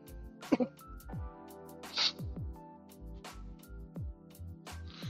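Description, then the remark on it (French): A couple of sharp coughs from someone who choked on crumbs in coffee burst out in quick succession, followed a moment later by a rough throat-clearing hack, over a steady low hum in the background. “Oh la vache, je me suis étranglé avec des miettes dans mon café.”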